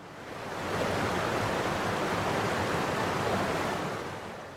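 A waterfall flowing fiercely through dense green forest, about a kilometre from Kotdwar, roars in a steady, dense rush of white water, loud and continuous, swelling in at the start and easing slightly at the end, with no voices.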